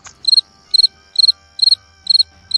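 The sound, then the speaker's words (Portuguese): Crickets chirp in a steady rhythm, six evenly spaced bursts of rapid trilled pulses, clear, with no voices over them. “Eu só ouvi os grilos agora.”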